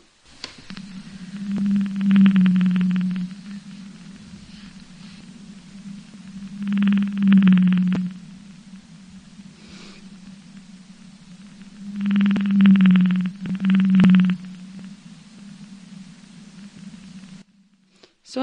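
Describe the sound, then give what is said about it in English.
Whale song: low, drawn-out moaning notes rise out of a steady hiss in four separate swells, two of them close together near the end, with quiet gaps between and no voices. “I want to take a swipe at the movie industry for using whale songs”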